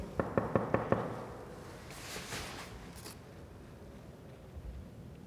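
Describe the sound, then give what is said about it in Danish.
Five quick, sharp knocks on a locked door in a stairwell, in a steady rhythm and fairly loud, followed by a brief rustling and then quiet. “Jeg prøver at banke på.”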